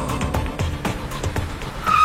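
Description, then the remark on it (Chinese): A car driven fast through a city, its engine roaring steadily at speed, with a few sharp bursts of noise, then a high tire squeal cuts in right at the end as the wheels skid. “孟浩然在城市中飞快地开着车。”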